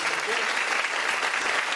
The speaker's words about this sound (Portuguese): Gente, quero uma, uma afetuosa salva de palmas para vocês.